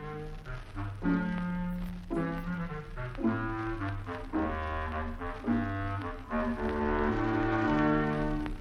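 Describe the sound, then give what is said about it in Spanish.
A frog croaks out a slow, low melody in hoarse, horn-like tones beside a pond, the sustained notes stepping up and down over a steady bass, loud with no talking. “Yo tengo una voz ronca, pero canto lindas melodías junto al estanque.”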